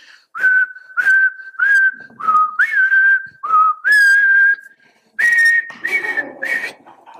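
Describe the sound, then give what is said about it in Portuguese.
A man whistles a movie villain's theme, a slow, ominous melody of short, clear sustained notes with brief breaths between them, rising and falling in a steady march-like rhythm, as he slowly opens the door on coming home from work. “Mas quando eles ouvem esse barulhinho, a música do maior vilão da história, né?”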